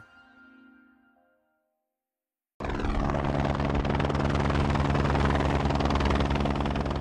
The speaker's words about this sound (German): Anflug auf den pyramidenförmigen Gipfel des Hochvogel in den Allgäuer Alpen. Der Pilot setzt den Helikopter mit nur einer Kufe auf einer Felskante knapp unterhalb des Gipfels auf, im zerklüfteten Gelände und hält ihn in der Schwebe.